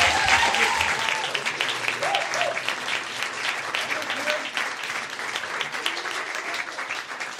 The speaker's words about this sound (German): Kommt mal hier mit. Äh, und der mit tosende Applaus natürlich.